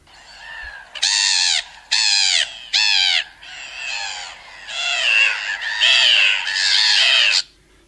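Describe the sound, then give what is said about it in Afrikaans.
Harsh, nasal calls of a grey-headed gull, a seagull: three short separate squawks followed by a longer run of loud, ragged overlapping cries, clear with no talking. “Dit is nou die chipvreter, die gryskopmeeu.”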